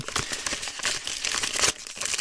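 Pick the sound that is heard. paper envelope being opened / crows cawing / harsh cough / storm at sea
paper envelope being opened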